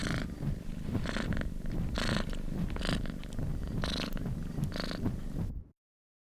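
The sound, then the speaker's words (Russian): A cat purrs steadily while held against the side of a person's head as they sit on a sofa, a continuous low rumble with rhythmic breathy swells roughly every second, alone with no voices, ending abruptly after about five and a half seconds. “Я решительно не понимала, чем мне заняться, поэтому в основном я сидела на диване, приложив мурчащую кошку к той стороне головы, откуда исходил шум.”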